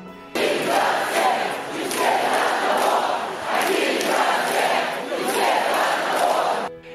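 street protest crowd chanting

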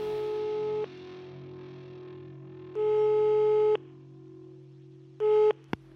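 telephone ringing tone

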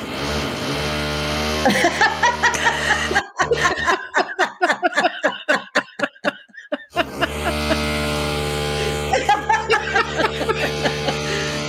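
neighbor's power drill drilling

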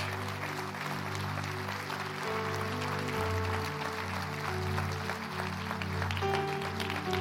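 audience clapping hands

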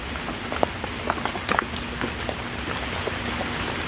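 rain falling

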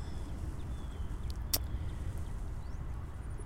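car driving by

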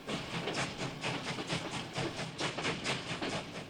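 train running on rails

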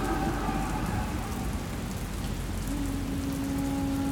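thunderstorm with heavy rain

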